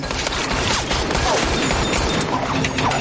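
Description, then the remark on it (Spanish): Continuous rapid gunfire crackles loudly for three seconds, with sharp metallic clangs and pinging ricochets as bullets are struck with swords, some deflected while others pass through, layered into a dense, unbroken barrage with no voices. “Rechaza algunas balas, otras lo atraviesan.”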